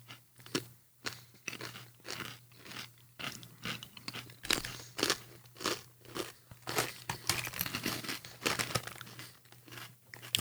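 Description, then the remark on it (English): Crisp kettle-cooked chips seasoned with cumin crunch in a quick, irregular series of sharp bites, mixed with the rustling crinkle of the chip bag, all over a faint steady low hum with no talking. “Kettle cooked chips.”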